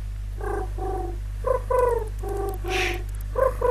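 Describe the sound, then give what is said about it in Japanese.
A person imitates an oriental turtle dove, voicing a rhythmic run of about seven low, husky coos grouped in short phrases, with a brief breathy puff near the end and no talking. “これが、うんキジバトの鳴き声なんだよ。”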